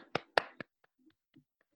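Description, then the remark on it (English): A lone person claps: three sharp, loud hand claps in quick succession, then a few faint, scattered taps fading out. No one speaks. “well, look, a single clap is better than no clap at all.”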